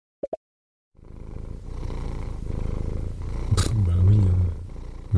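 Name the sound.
cat purring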